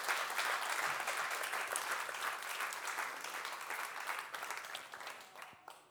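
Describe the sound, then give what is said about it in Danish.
An audience applauds with dense, steady clapping that holds strong for several seconds, then gradually thins and fades toward the end. “Jeg vil lige give dem en hånd her.”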